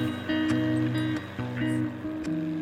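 A very small motorboat with a big engine crosses choppy sea from the port of Nosibé to the small island of Nosicomba. Its engine drones steadily, the low hum broken every half second or so by hollow thumps and splashes as the hull slaps through the waves.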